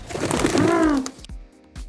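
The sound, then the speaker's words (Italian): A person gives one throaty, warbling coo that rises and falls, a fairly loud imitation of a pigeon. A few soft taps follow in the quiet after it. “Eh, vedi, vedi, vedi, quando mi impegno ogni tanto esce il piccione che è in me.”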